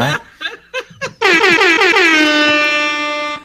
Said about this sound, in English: Uh, wow, air horn